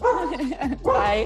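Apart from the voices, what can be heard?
dog barking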